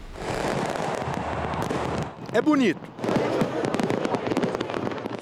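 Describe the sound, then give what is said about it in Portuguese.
New Year's fireworks in Brazil crackle and pop in a dense, continuous barrage, with a brief swooping whistle midway through and a person speaking a few words over the bursts. “Veja agora quais os riscos e como evitar que os fogos de artifício estraguem a sua virada de ano.”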